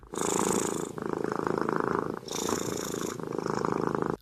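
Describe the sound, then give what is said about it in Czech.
A cat, the famous cat Nala, purrs steadily as it falls asleep in a small bed while its owner covers it with a blanket: a continuous rumbling purr with rhythmic breathing cycles, heard on its own with no talking. “V jednom videu jde tahle slavná kočka spát do takové malé postýlky a panička ji přikrývá dekou.”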